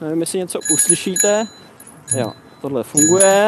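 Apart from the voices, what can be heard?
bicycle bell ringing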